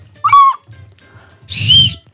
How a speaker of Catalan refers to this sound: tu tens un flaviol, que és un instrument valencià, que és l'equivalent a la dolçaina, i Carolina té el seu xiulet